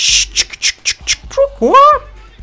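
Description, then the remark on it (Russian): A voice imitates a vinyl record scratch: five quick hissing, rhythmic bursts followed by a squawking, rising and falling vocal sweep, fairly loud. “И с перепугу Теодор, мальчик тогда еще юный, Э, дернул рукой и локтем зацепил пластинку, и она сделала такой”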